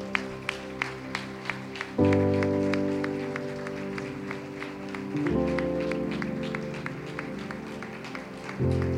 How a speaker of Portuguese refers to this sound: Dê a salva de palmas ao Senhor.